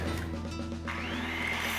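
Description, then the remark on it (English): A power tool from Eagle Hardware, used by Edgar Martinez on a project making a light bat, hums steadily, then revs up partway through into a rising whine, running on its own without any talking. “Well, once again, Edgar Martinez is using Eagle Hardware's incredible selection of brand name power tools for its latest project.”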